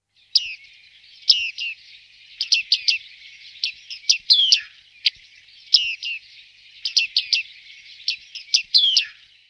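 Bearded reedling (Panurus biarmicus) calls: bright, high, twangy notes in quick bursts and short clusters, repeating in a steady pattern over about ten seconds, clear with no talking.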